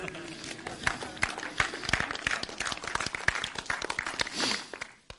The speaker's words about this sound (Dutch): Wow, Alle moeders, jullie verdienen een applaus.